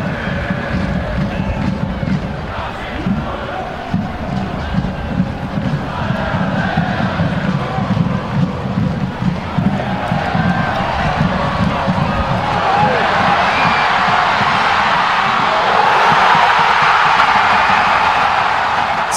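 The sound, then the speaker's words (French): A large stadium crowd roars at Anthony Jackson Amen's winning goal for the Montreal Impact, a dense wall of shouting and chanting that swells into a brighter, louder surge of cheering over the final stretch. “C'était le son du but gagnant d'Anthony Jackson Amen, le Joker du banc, qui marque euh, encore une fois pour l'impact de Montréal et sauve les fesses de Biello et, euh, ses coéquipiers.”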